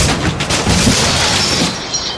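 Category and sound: impact, car crash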